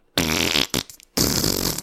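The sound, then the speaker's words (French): Two loud, buzzy fart noises of a character defecating in an acted scene, each lasting about half a second with a rough, sputtering texture, separated by a brief gap with a short blip in between. “Vraiment des bruits de marde, là, je”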